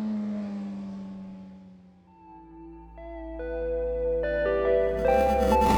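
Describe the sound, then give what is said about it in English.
A motorcycle carrying a passenger heads out of a base in cold wind; its engine rumbles low, then revs up in rising, stepped surges that grow louder as it pulls away, with an echoing, processed quality and no voices. “I end up heading to Integrity on the back of Omar's motorcycle, cold wind whipping my headscarf as we head out the base.”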